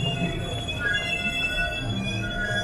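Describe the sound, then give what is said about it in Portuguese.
A train brakes as it arrives at Presidente Altino station, heard from inside a carriage, with steady rumbling and thin, high-pitched wheel squeals that rise and fade, sustained and fairly loud throughout, with no voices. “De repente, o barulho do TEI freando aumenta.”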